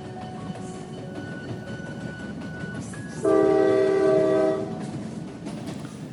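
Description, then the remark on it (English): A steady rumble of a very long train rolling along the tracks from Manchester to London, interrupted midway by a loud, sustained horn blast lasting about a second and a half before the rolling noise continues alone. “After college, Jo got a job, and one day she was riding a very long train from Manchester to London.”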